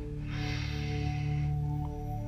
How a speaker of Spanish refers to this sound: Cierra la boca e inhala aire a través de la nariz. La inhalación la vamos a hacer a través de la nariz. Y cuenta hasta 4 durante esa inhalación. Es decir, vamos a hacer una inhalación que dure 4 segundos. De esta manera.